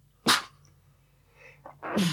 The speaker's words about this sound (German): Oh, ich muss niesen.